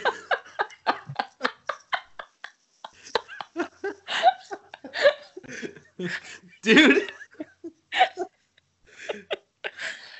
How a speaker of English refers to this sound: that was a class A burp